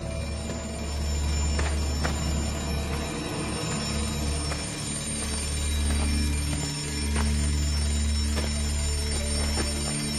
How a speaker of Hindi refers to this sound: store room में रखे एक डब्बे से अलार्म क्लॉक बजने की आवाज आने लगी